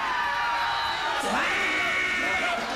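A man lets out a loud, drawn-out shout that dips and then rises in pitch before holding steady, ringing out over a busy, noisy background.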